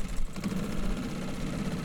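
A small boat outboard motor idles steadily, a low rumbling drone with a faint rhythmic knock, running continuously without any voices over it.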